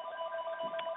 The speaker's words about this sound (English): So excuse the phone in the background